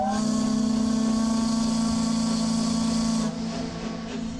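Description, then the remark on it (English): The steam whistle of the steamer Columbia blows one long, loud, steady blast with a breathy hiss at the end of a voyage around the Pacific Northwest, then cuts off abruptly near the end, leaving a softer lingering hiss. “That sound means the steamer Columbia has reached the end of another thrilling voyage around the Pacific Northwest.”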